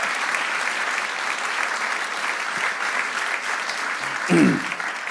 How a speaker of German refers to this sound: Kurzer Zwischenapplaus. Ich brauche hier ein bisschen. Danke. Wow.